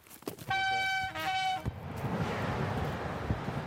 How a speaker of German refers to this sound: In dem Gebüsch, in dem sich die afghanischen Männer vor der Polizei verstecken, donnern wenige Meter entfernt immer wieder Züge vorbei.